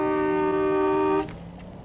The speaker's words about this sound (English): But then something happens. A car honks.